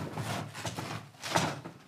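A knife cutting food on a board, with a few irregular strokes of scraping, rustling noise and soft knocks, one longer, louder pass near the end.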